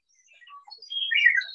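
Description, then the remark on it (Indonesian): Birds chirp in a quick flurry of high, thin tweets, starting faint and scattered, then growing louder and busier toward the end. No one speaks. “Dengan cara bagaimana burung-burung itu ya”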